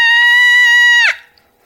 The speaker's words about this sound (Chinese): 一声女人的尖叫把我惊醒了。那声音是从爸妈的房间传来的，但绝不是我妈的声音，因为那声音很大、很尖、很急促。